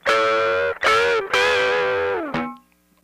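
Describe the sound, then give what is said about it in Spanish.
A distorted electric guitar plays a short blues-rock lick in rock style, a version of a just-improvised riff intro: three loud, sustained, gritty phrases ending in a quick downward slide that cuts off into silence. No one speaks. “Ahora, si lo hago como en modo rock, sería un.”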